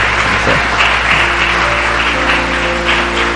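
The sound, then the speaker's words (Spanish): An audience claps steadily throughout to welcome first-time visitors, a dense, loud wash of many hands with no pauses and a faint low hum underneath. “Démosles un aplauso.”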